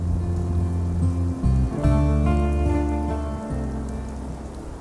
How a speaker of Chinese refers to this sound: 这么大的雨，我们都没法去种庄稼了